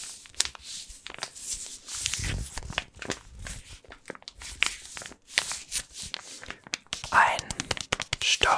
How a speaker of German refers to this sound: das Knistern der vollen Packung Mehl